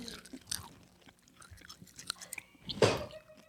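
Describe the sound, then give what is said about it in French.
Someone chews a blue hard candy: irregular crunches and sharp clicking bites, with one loud, gritty crunch toward the end. No one speaks. “Moi, je dis, on, on cheers sur un bonbon.”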